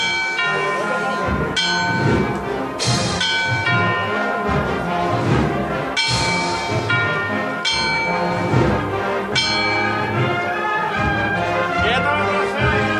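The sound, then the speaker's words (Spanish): Parish church bells peal loudly, with fresh strikes every second or two and their ringing tones overlapping into a continuous, clanging wash for the whole stretch. “Parece que las campanas de la parroquia formarán parte de la marcha.”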